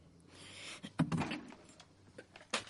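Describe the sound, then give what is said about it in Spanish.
A wardrobe door opens with a short wooden knock and a creaking slide, followed by a faint rattle and a second sharp click near the end; moderately quiet, with no voices. “Abre la puerta del armario.”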